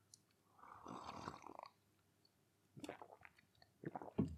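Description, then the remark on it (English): A noisy slurp of a hot drink lasting about a second, followed after a pause by a couple of shorter wet mouth sounds and breaths, with no talking. “So hang on a second, another cup of a quick sip of uh, the old uh, the old bloobs.”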